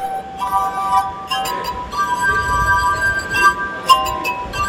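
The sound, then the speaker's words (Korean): Sustained, pure ringing tones from tuned drinking glasses played by a 78-year-old performer form a slow melody, several notes overlapping and shimmering, with a soft background murmur of a crowd of tourists beneath. “유리잔으로 선보이는 환상의 연주”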